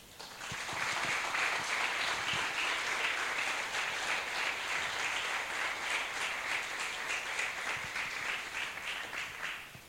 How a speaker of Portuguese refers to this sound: Quero um aplauso para o Senhor.